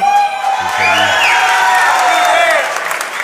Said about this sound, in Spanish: Y aplauden.